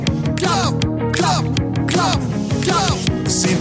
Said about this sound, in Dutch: heeft hij, verwacht het al, een, een Sinterklaasliedje opgenomen. Wat eh, in de film voorkomt, die 5 oktober in première gaat.